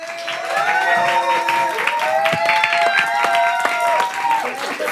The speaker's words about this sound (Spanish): Pero mi siguiente invitado sabe de historias y tiene una gran historia, o muchísimas historias. Un fuerte aplauso para Juan Osorio.